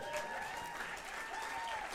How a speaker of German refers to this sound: Ah, du, gib mal einen Applaus, come on.